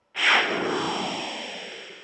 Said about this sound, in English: The sound you just heard was a breaking news whoosh,